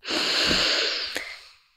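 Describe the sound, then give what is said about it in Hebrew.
A long, deep breath drawn in, taken together by partners with both hands resting still on the breast area, a steady airy rush lasting nearly two seconds before slowly fading, with a faint click near the end and no talking. “רק ידיים פשוט נוכחות על, על האזור של השדיים ולקחת ביחד נשימה.”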